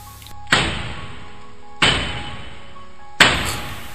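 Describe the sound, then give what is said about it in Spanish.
Three heavy, dry knocks on a door, as if struck with a mallet, slow and evenly spaced about a second apart, each loud with a short lingering ring afterward; no voices. “Se escuchó en la puerta, pero los golpes fueron secos, como hechos con un mazo.”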